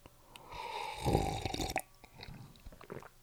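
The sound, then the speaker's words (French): A noisy slurping sip of hot spiced black tea, one drawn-out airy draw lasting about a second and a half, followed by a few soft mouth and swallowing sounds. “À la vôtre donc avec ce premier thé noir épicé d'une longue série dans ce bel endroit.”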